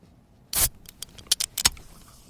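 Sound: beer can being opened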